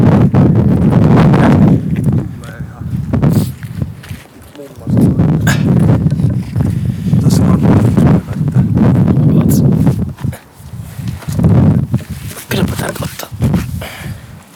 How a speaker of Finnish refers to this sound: Oi, oi. Kyllä tässä vähän tuuli ottaa.